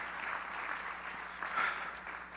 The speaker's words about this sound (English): Come on, clap your hands unto the Lord again.